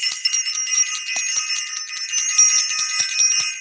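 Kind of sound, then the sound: signal or alarm, bell being rung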